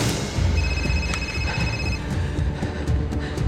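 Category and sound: signal or alarm, telephone ringing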